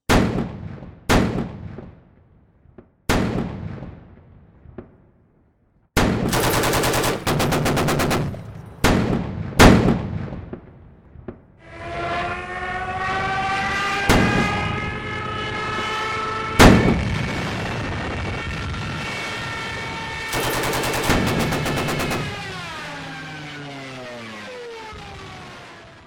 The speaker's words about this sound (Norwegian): Tidlig på morgenen den 1. september åpnet Schleswig-Holstein ild mot de polske stillingene inne på Vesterplatte. De første skuddene i den andre verdenskrig var avfyrt.